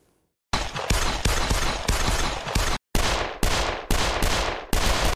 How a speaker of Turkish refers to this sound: Silahların ateşlendiği yer Ankara'da bir çorbacı.